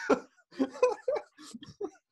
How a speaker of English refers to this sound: And I've got this like chesty cough.